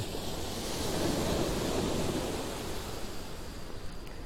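Ocean waves at dusk wash steadily onto the seaside shore at Hayama, Shonan, Japan, in a continuous, broad rushing roar, with a faint breezy hiss over the top and no voices.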